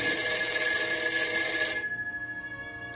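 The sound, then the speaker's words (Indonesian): A home landline telephone bell rings loudly, a dense metallic trill that stops abruptly partway through, leaving a lingering ringing tone fading into quiet. “Aku tersadar karena mendengar deringan telepon rumah sampai tiga kali.”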